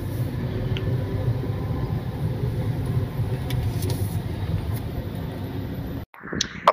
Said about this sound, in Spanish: Aquí en Calzada Tlalpan ahorita hay fácil 10 camiones.